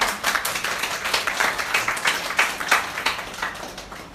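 A small group claps steadily for about four seconds, a dense patter of overlapping hand claps at a fairly even level with no voices over it.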